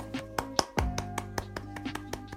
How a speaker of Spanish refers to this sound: Y llegan los aplausos. Como esos de búho.